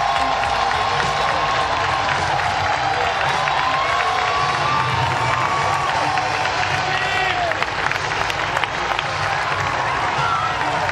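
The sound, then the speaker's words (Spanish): A large baseball stadium crowd roars and applauds continuously in a sustained standing ovation for a player's first major-league at-bat, bottom of the eighth inning, Pittsburgh Pirates against the Dodgers at night; cheers and scattered shouts rise over dense clapping that fills the whole stretch without a break. “Tuvo su primer turno al bate en la historia de las grandes ligas y recibió una gran y merecida ovación.”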